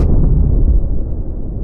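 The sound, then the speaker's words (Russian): A single loud explosion bursts out with a sharp crack, then rolls into a deep, heavy rumble that slowly fades over a second and a half, with no voices present. “Если это согласование нарушится, то либо реактор перестанет выдавать энергию, либо, что гораздо хуже, произойдет авария или взрыв.”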